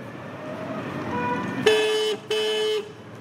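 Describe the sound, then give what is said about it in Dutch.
The horn of a compact electric scooter being ridden honks twice in quick succession as the rider tests it, each a steady, buzzy electronic tone lasting about half a second, loud over a low hum of ambient noise. “Even toeteren. Die werkt ook.”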